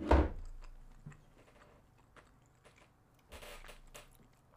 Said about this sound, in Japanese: これはねイカイカなんだけどイカ食べてるんだけどちょっと音をねコリコリ感うんコリコリ感がねいいよね